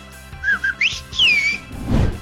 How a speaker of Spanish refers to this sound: Bueno, lo que recuerdo de mi querido papá era que si yo aprendía a chiflar, nunca iba a perder el colectivo o si necesitaba buscar a alguien. Y yo desde los seis años iba practicando mi chiflido. Es más, ahora te lo hago